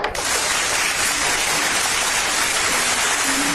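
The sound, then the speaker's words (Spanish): Steady applause from a crowd, called for from the show's production team, a dense wash of clapping that holds at an even, fairly loud level for a few seconds with no voices over it. “Producción, aplauso por favor.”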